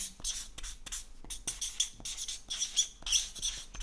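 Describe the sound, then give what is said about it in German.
Felt-tip pens squeak against paper in quick, irregular strokes as quiz players write down their answers, each stroke giving a thin, high-pitched squeal. The writing is moderately loud, with no voices. “Da quietschen die Stifte.”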